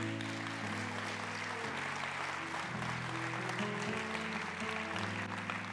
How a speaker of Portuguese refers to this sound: Aplauda ao Senhor e dá um glória a Deus.